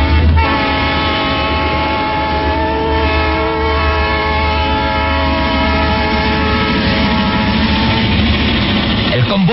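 A steam locomotive's whistle wails in one long, loud, steady chord over the train's low rumbling run as it speeds through valleys and mountains in northern Italy, sounding the whole time before cutting off near the end.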